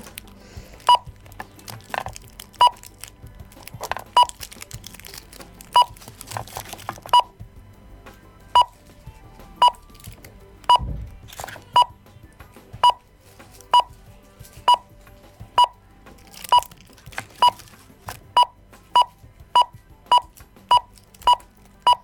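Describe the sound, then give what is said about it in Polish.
A talking kitchen scale, in target-weight mode while candies are weighed, emits short, clear electronic beeps, widely spaced at first and then coming steadily faster as the weight nears the target, with faint clatter and handling noise underneath and no talking. “I znowu będzie sytuacja taka, że im więcej, im bardziej się będę zbliżała do tej wagi docelowej, tym on będzie szybciej piszczał.”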